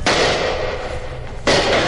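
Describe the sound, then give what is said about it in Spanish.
Two loud gunshots about a second and a half apart, fired by a guard at two shadowy figures approaching the barracks, each a sharp blast followed by a long, rough rumbling wash of noise that fills the gap. No one speaks. “Al oír los tiros, el sargento se despertó y también todos los guardias.”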